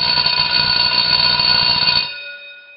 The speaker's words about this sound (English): Whoa, whoa, whoa. The bell doesn't dismiss you. I dismiss you.